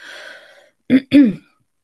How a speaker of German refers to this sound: Entschuldige bitte, dass ich mich zwischendurch immer mal wieder räuspern muss, aber ich bin immer noch ein bisschen angeschlagen.